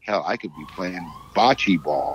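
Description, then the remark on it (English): A police siren wails steadily in the background, a sustained tone running beneath a man talking in the foreground. “Police are coming to get you, by the way. I don't know if you can hear them yeah, in the background.”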